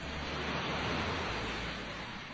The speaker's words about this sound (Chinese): 他们又走了一会儿，果然，波浪起伏的大海出现在他们的面前。